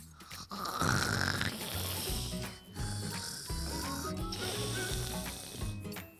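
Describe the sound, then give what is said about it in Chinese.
A worn-out red fox snores loudly while asleep, curled in a small hole dug in the grass, a raspy, rattling drone that keeps going for about six seconds with only a brief dip partway, and a thin rising whistle near the start. No one speaks. “红狐狸累得眼皮都睁不开，一下子就睡着了。”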